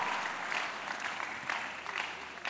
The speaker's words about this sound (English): You're clapping.